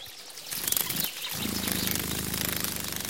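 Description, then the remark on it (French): A dragonfly's wings buzz in a rapid, rattling whir, breaking off briefly before settling into a steady, pulsing drone over a soft outdoor hiss, at the edge of a pond. “Cette bestiole fait un bruit très léger qui ressemble à un vrombissement. J'ai trouvé C'est la libellule.”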